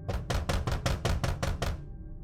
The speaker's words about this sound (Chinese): 布莱恩走上前，敲了敲门，